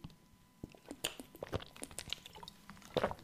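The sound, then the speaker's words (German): Someone takes a sip of water: quiet wet slurps and mouth clicks, then a slightly louder gulp near the end, with no talking. “Gut, ähm, nächste Sorge, ein Schluck Wasser, nächste Sorge.”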